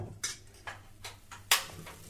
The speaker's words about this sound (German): Ich versuche, ein altes Rezept für Kichererbsenpfannkuchen nachzukochen. Es ist sehr einfach. Kichererbsenmehl und Wasser und rühren. Bis so ein schlotziger Teig entsteht.